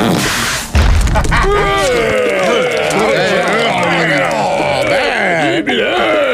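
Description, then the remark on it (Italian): A heavy boulder slams down onto Guy's foot with a single deep thud, and right after it a voice erupts into long, wavering howls and groans of pain that slide up and down in pitch. “Guy si schianta un masso sul piede e dà la sveglia a papà Grug e mamma Ugga.”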